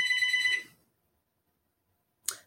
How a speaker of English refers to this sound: that's a new one. House phone ringing.